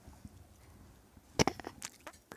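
Heavy footsteps of a person storming away in anger: one loud thud, then a quick run of lighter, uneven steps that grow fainter over the next second, after a stretch of near silence.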